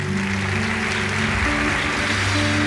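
A large audience applauds for pastors, a dense, continuous wash of clapping, with sustained low keyboard-like tones held underneath and no one speaking.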